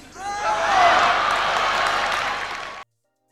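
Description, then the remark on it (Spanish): A crowd gives a standing ovation, bursting into loud, dense applause with whistles and cheers rising over it, holding steady for about two and a half seconds before cutting off abruptly. “Aplausos de pie.”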